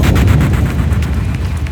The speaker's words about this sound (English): Holy jumping jacks! Whoa. What was that? I don't know. Sound waves are telling me it was an explosion?